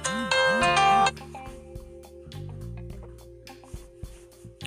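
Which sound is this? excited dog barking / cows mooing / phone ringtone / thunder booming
phone ringtone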